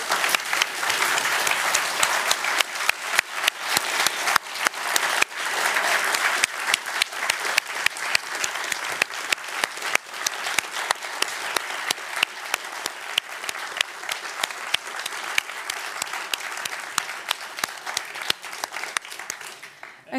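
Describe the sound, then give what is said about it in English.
A sustained round of applause from an audience for a team after their talk, dense rapid clapping that holds steady at full strength for about twenty seconds before easing slightly at the end. “Uh, and let's again give a big round of applause for this entire team.”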